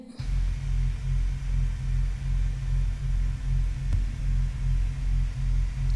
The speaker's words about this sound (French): C'est quoi ça là c'est un bruit blanc, ça. Mm, non, c'est pas normal.